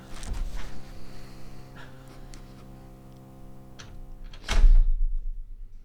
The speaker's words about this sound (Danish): Ja, og nu har vi den her skønne, lidt gode baggrundslyd lige nu. Kan I høre den? Der bliver boret. Ja. Det er jo meget sigende for emnet, kan man sige. Ja, helt sikkert. Så kommer der lige noget. Nogen, der borer.